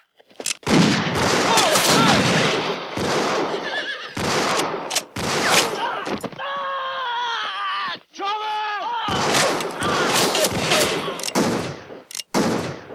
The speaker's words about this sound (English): Buckshot Ramirez or whatever the guy's name is who's shooting them up. I mean, he just totally gets the drop on them. One dude, and they can't hit him.